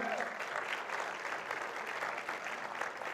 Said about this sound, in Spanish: Denle un aplauso a todos los niños de Vida Kids por ahí, por favor.